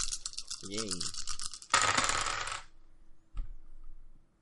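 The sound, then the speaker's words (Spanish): A dense, loud clatter of many small two-sided dice tumbling and rattling for about two and a half seconds, with a brief voice sound early on, then a single light knock after a pause. “Si habéis oído muchos dados, es que han sido muchos dados.”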